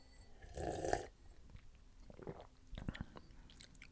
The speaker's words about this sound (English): But I have to go in for a second sip. Yeah. Hold on. Here's a here's a nice aerated second sip for y'all.